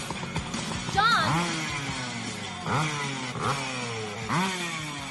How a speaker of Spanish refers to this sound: Pues no, no, yo, por eso te digo que siempre me ha chocado el sonido de la moto en esta, en esta película. De esta moto en esta película. el sonido que ponen a mí no me cuadra. yo creo que no me cuadra,